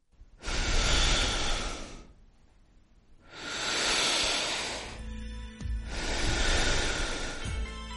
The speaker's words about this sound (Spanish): Así suena nuestra respiración.